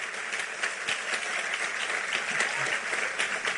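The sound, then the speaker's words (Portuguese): An audience applauds the Lord steadily, a dense wash of many hands clapping at once, sustained and fairly loud throughout with no pauses. “Pode aplaudir o Senhor, porque Ele é tremendo nessas questões.”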